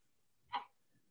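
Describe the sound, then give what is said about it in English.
A single short bark from a pet dog, Teddy, on seeing another dog, rings out once, sharp and somewhat muffled, against an otherwise quiet background with no one talking. “I ap apologize. My dog is seeing another dog.”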